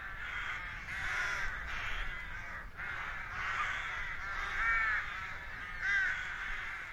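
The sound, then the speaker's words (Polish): A crowded nesting colony of birds keeps up a continuous, overlapping chorus of harsh cawing calls, many voices at once, with a few louder calls standing out. No one speaks. “Nagrałem, zarejestrowałem dla Was y, dźwięki dobiegające z tej właśnie kolonii.”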